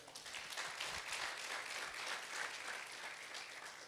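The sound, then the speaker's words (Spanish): An audience bursts into sustained applause for the Lord during a sermon, a dense wash of many hands clapping at steady volume for several seconds, without any voices breaking through. “Denle un fuerte aplauso al Señor.”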